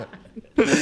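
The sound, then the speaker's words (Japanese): A short, abrupt burp from a man erupts after a moment of quiet low murmuring during a radio broadcast, a single throaty, raspy burst that cuts off quickly. “え何俺がゲップしたから何なのいや、いや、”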